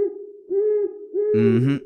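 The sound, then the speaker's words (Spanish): A series of low, steady owl hoots repeats in a slow rhythm, clear, with the final call turning rougher and more layered before it fades. “Aves nocturnas, de entre las que destacan búhos, lechuzas y los tan mexicanos centroamericanamente mejor conocidos como tecolotes.”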